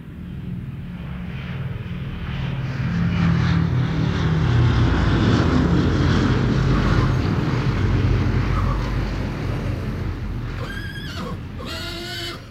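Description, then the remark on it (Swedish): A dense, deep droning of hundreds of English propeller aircraft flying over on their way to bomb Germany, swelling louder through the middle and slowly easing off, with a brief high whinny-like cry near the end. “Det var inte som flygplan för det var ju, eh, ja det var ju hundratal med plan som gick. Så det blir ett sånt fylligt konstigt ljud.”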